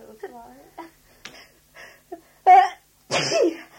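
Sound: sneeze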